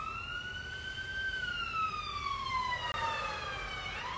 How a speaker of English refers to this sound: It's a siren going by and just honoring that energy. May they have their spaces clear to go help whoever they need to help.